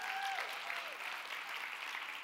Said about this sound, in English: We live in a blessed house because the men of our house acknowledge that God has created us on purpose, for purpose, without limitation. Somebody ought to clap about that.